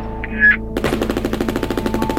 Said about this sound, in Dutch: Staan staan elkaar daar gewoon af te knallen. Hier het hoofdbureau. Er wordt melding gemaakt van schoten bij het douaneterrein.